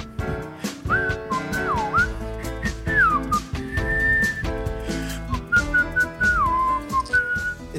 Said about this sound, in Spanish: Estamos de regreso con música elegante que podría chiflar el, chiflor, el silbón,